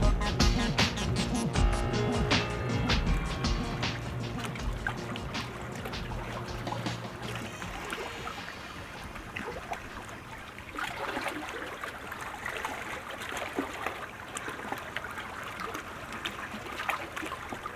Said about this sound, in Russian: Старый лодочник опустил весло в воду, уводя лодку от берегового тумана.